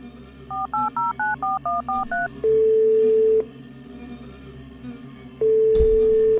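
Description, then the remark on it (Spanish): About eight quick touch-tone beeps as a phone number is dialed on a mobile phone to call the health department (Secretaría de Salud), followed by two long, steady ringing tones on the line, with a quiet hum underneath and no talking. “Voy a buscar los números de teléfono que necesitas. Te llevo el celular.”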